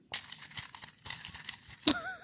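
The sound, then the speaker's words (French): Dry rustling of a great many paper slips being stirred in a bowl, in irregular crinkly bursts over a couple of seconds, with a sharper crackle near the end and no talking. “C'est ce que là, vous le voyez pas, mais dans, il y a à peu près un million de papiers dans mon bol qui...”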